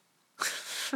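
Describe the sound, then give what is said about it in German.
A single sneeze bursts out after a brief quiet moment, a sharp breathy explosion of noise that tails off with a short voiced catch at the end. “Gesundheit.”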